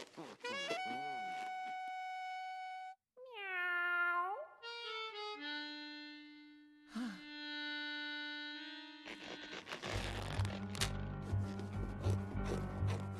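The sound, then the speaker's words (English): A voice imitates a cat meowing, several drawn-out, high-pitched calls with sliding pitch, one held long and steady, before music with a regular beat comes in. “The vet reached deep down inside of George and pulled out a cat.”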